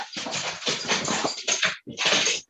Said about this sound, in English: Is that a dog? Is that your dog?